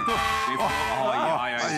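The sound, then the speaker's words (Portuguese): A short siren blast with a wavering, rising and falling wail, loud, blended with voices that sound like someone vocally imitating the siren. “Saudade da sirene, Djalminha.”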